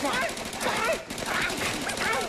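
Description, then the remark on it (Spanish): Rapid gunfire crackles in quick, continuous bursts for a couple of seconds, fairly loud, with a voice speaking over the shots; the shots are being fired at the clouds. “¿Ya viste por qué hay que dispararle a las pinches nubes, mi amor?”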